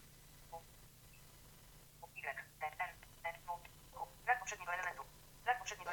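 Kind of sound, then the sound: signal or alarm, telephone dialing tones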